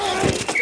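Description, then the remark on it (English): A couple of quick, dull padded impacts of football pads colliding, loud, with a faint hum and some crowd-like murmur underneath. “The collide of football pads.”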